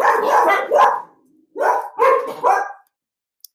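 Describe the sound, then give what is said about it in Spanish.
Neighbours' dogs, out on a walk at half past ten at night, bark loudly: a burst of rough barks followed after a short pause by three more in quick succession, then quiet with a faint click at the end. “Porque los vecinos sacan a pasear a sus perros a pesar de que son las diez y media de la noche y estamos en toque de queda”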